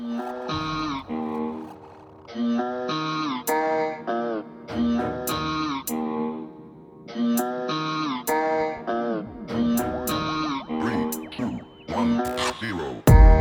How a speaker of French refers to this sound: On se quitte avec un de tes sons, …, tout de suite sur Radio Phoenix.